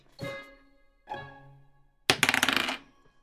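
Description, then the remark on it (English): Dice are rolled in a game to see if the sheriff can aid a survival check, with two brief ringing clatters followed by a louder, rapid rattling burst of many small clicks that stops abruptly. No one speaks. “Absolutely, I'll roll that right now.”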